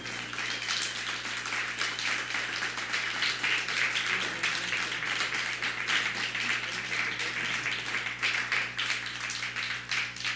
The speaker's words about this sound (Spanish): Otro fuerte aplauso para la Congregación Mundial.